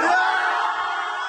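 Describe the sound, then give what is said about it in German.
A huge crowd shouting together in a packed Oktoberfest (Wiesn) festival tent, a dense, loud roar of many voices sustained through the whole moment without pause. “Wenn ein ganzes Wiesenzelt schreit.”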